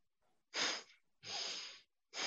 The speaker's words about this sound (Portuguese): peço desculpa, vou espirrar.